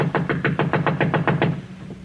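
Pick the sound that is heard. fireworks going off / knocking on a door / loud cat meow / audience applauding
knocking on a door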